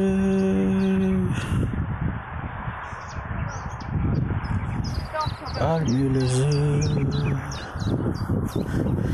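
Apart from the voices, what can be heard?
birds singing outdoors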